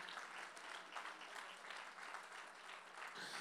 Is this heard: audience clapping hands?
yes